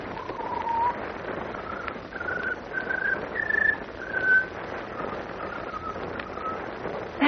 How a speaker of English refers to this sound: At the moment, Lois, Horace Pinder, and the Man of Steel are waiting silently for the strange scarlet bird to trill its peculiar melody. Just when we want to hear it, he won't sing. Patience, Miss Lane. There. He's starting. Quiet.